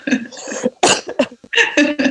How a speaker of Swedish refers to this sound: Jag får hostanfall och dör här och här, den här informationen.